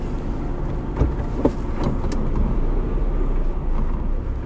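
A car engine rumbles steadily as the vehicle backs up away from a concrete bridge, a low continuous drone with a few brief knocks and clicks over it.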